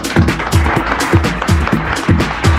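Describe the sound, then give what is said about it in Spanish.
An audience in Mexico City applauds to welcome a guest, a dense burst of clapping with a steady, pulsing rhythm that holds at a fairly loud level for a few seconds without any talking. “Hoy tuve un aplauso a la mañana y ahora tengo una noche, no está nada mal.”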